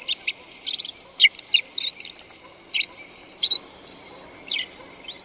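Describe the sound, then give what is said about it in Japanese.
A black-faced bunting, a sparrow-sized relative of the meadow bunting, practices its seasonal song in short, halting bursts of high, thin chirps and twitters, irregularly spaced, over a steady low background hiss. “練習でこの季節ならではの鳴き声です青地はホウジロの仲間スズメくらいの大きさの鳥です”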